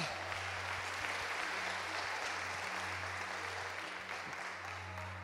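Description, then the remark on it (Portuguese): A crowd applauds the Lord steadily, a dense wash of many hands clapping at once that holds for several seconds, with a low hum running beneath it. “Alguém pode aplaudir o Senhor, alguém pode gritar.”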